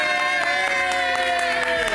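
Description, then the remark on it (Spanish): An audience at the show Pégate al Mediodía keeps clapping for two seconds, sharp claps breaking through a steady crowd roar. Sustained musical tones ring underneath the whole time. “Está bien, pueden seguirlo aplaudiendo.”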